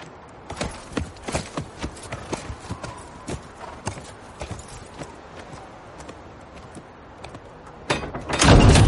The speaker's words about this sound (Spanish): En el norte, el cielo está nublado sobre el castillo negro. John y los dos guardias de la noche se acercan a caballo.